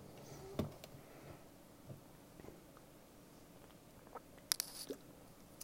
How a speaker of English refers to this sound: I got this, guys. Let me get a drink of water. Hold on.